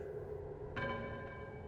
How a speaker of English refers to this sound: you can't be sure if it is your mind and your memory playing tricks on you in this space, or if it is a genuine thing that you perceive damned if you don't feel like you hear a bell coming from a cave opening that your eyes dial in on.